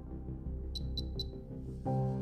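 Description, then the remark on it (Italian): Three short, evenly spaced high-pitched beeps from a keyboard confirming it has received a font sent to it, ringing clearly above a low background hum, followed by a louder shift in the background noise. “Sentirete questi tre beep che vi diranno che la tastiera ha ricevuto tranquillamente il font.”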